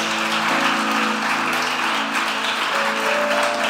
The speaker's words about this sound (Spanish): Hay alguien que lo cree aquí, que aplauda fuerte, fuerte al Señor. Vamos, Dios tiene el poder.